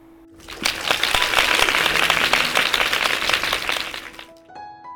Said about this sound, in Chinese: 真的是好棒棒，给自己拍拍手吧。